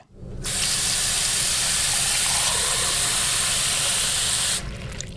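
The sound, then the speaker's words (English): Water is poured into a big glass: a loud, continuous rushing splash for about four seconds, then it stops abruptly. No voices. “Mmm, a big glass of water.”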